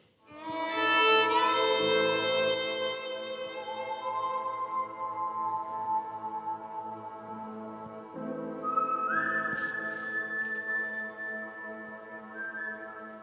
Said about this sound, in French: quoi qui fait plus western que quelqu'un qui siffle, maintenant?